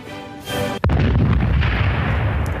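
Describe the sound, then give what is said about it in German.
A loud explosion sound effect: a brief rising whoosh, then a sharp blast followed by a long, heavy rumbling roar that slowly fades, with no voices. “Und die Explosion hat es beendet.”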